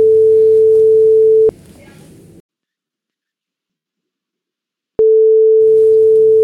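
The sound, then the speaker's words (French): A steady electronic phone ringing tone sounds loudly, cuts off abruptly, and after a few seconds of silence returns, repeating in long even bursts as a phone call is placed. “Je vais l'appeler.”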